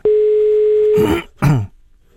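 A steady, single-pitched telephone dial tone hums loudly for about a second as a call is placed to Gita Nørby, then cuts off into two short, rough bursts like a throat being cleared.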